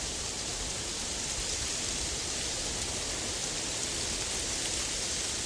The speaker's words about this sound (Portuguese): Abrimos os olhos e estamos no meio de um lindo jardim, cercado por um bambuzal onde o vento sopra gentilmente.